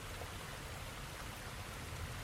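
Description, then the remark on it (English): Water runs steadily into a canteen, a continuous rushing, splashing flow that holds an even level for a couple of seconds with no talking. “All right, I'll fill up the canteen.”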